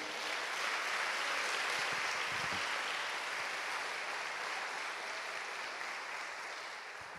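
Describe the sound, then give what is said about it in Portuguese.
A church audience applauds the Lord in worship, many hands clapping at once into a dense, crackling wash that holds even for several seconds and eases slightly toward the end; no voices stand out. “Vamos aqui aplaudir o Senhor.”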